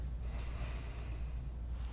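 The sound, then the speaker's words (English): A single long, airy sniff drawn in through one nostril with the other closed, as a simple sniff test, steady and lasting about two seconds with a breathy hiss and no talking. “So you can do a simple sniff test close one nostril and breathe in, and then try the other one.”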